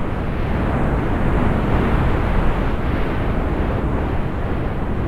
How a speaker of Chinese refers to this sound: 话说这风也太大了吧！